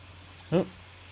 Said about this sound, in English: and now we have a cat. Wow, it's it's uh, Mavic here at the Campbell House today.